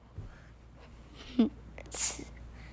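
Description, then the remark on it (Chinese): A voice imitates the loud snoring of Daddy Elephant: a short, rough snort followed by a breathy, hissing exhale, two quick bursts over a faint background. “对，大象爸爸的打呼啊，超大声的哦， 超 是这样子哦，这么大声哦。”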